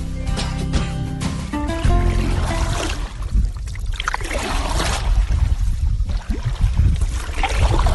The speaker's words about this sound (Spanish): Ese sonido que nos transporta. De hecho, literalmente nos transporta. ¿eh? Sí. Porque es el sonido de los remos cuando recorremos eh, las lagunas, las cochas, los ríos pequeños que recorren los pescadores en sus pequeñas balsas.